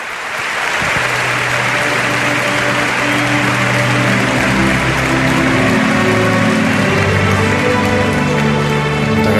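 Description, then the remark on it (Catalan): Loud, sustained crowd applause in a stadium before the Ireland–New Zealand quarter-final match, a dense crackling wash of clapping that swells in after the first second and holds steady, with a low droning hum underneath and no talking. “M'aparell aquest minut de silenci pel gran Xavi Moya amb aplaudiments de la gent del Stagefront.”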